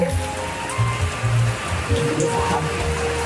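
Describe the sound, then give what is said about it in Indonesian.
Steady rain patters on a car roof at 10 at night, a dense, even hiss of drops heard from inside, with a low rumbling hum underneath and a few louder thuds mixed in. “Guys, jadi uh, ini tuh baru jam 10 ya, yang ini jam 10 malam terus hujan.”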